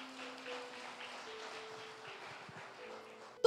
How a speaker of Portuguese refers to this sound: Se você recebe e crê, dê mais um aplauso, Senhor.